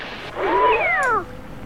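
A single drawn-out cat meow, rising then falling in a wavering, slightly whiny tone, lasting under a second and heard alone with no talking.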